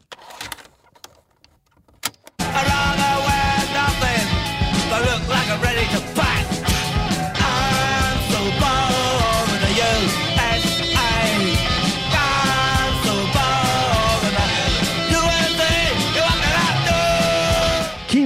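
An early punk rock band demo bursts in after a couple of seconds of faint rustling: raw, loud, dense guitars and pounding drums, with what sounds like shouted vocals.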